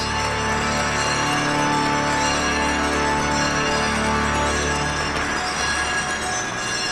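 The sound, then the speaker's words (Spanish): Cathedral bells ring in a loud, continuous peal, their overlapping metallic tones blending into a steady wash of sound that holds for the whole stretch without any voices. “Un momento muy emocionante, continúan sonando estas campanas, las 1200 personas ¿no? de esta catedral en pie, aplaudiendo”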